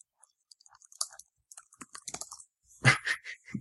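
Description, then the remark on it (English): Rapid, irregular clicking of keyboard keys being typed frantically, fairly quiet, building to a louder flurry of keystrokes near the end, with no voices. “Frantic typing noises.”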